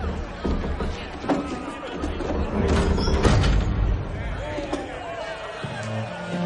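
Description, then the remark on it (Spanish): A soldier shuts the two heavy doors of a hall with a few dull thuds and knocks, heard over a steady murmur of crowd chatter. “Cierra las dos pesadas hojas.”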